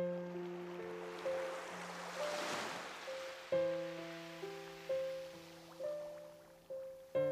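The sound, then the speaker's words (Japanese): A single soft wave swells in and washes away, its hiss rising and fading beneath calm, sustained synth tones and chiming notes, with no voices present. “【イメージ誘導瞑想】波の10分間瞑想”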